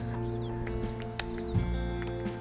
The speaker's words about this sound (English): I'm looking up at this tree trying to find these birds. I can't see any of them. This always happens. I can hear all of them.